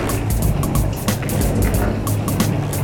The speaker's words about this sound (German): Mm. Schön, ne? So tönt also die Energieerzeugung von Abwasser. Ich kann dazu sagen, beinahe hundertprozentig biologisch abbaubar. Die Energie wird zu einem gewissen Teil auch durch Dampf gewonnen.